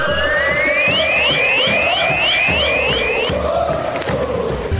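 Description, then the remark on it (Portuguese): A loud, dense crowd of Angra Esporte Clube supporters cheers and chants without pause at a Carioca Série A2 state professional football championship match, with steady rhythmic thumps underneath and a shrill rising tone repeating rapidly through the first few seconds. “A nossa torcida pelo Tubarão no Campeonato Estadual de Futebol Profissional.”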